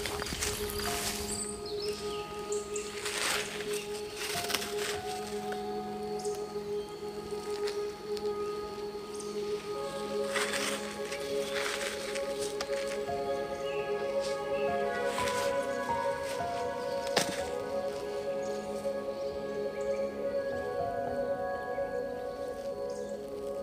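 Soft, intermittent scraping and scuffing of soil as a turtle begins digging a nest to lay its eggs, coming in short bursts, over a steady outdoor backdrop of faint humming insect tones.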